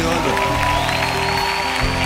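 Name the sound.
applause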